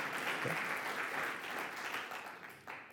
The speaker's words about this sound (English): Give God a hand clap. That's good stuff. That's good.